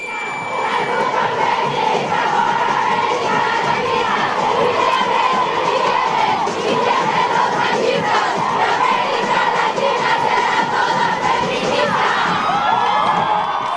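A large crowd of protesters fills the street with continuous loud shouting and chanting, many voices blending into a steady roar with occasional whoops rising above it.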